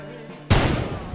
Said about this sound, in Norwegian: Knirk. Knirk. Dette studioet her er preget av knirk. Ikke topp moderne